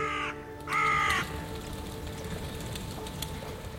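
A crow gives two loud, harsh caws, the second one longer, then falls silent over a steady outdoor background hum.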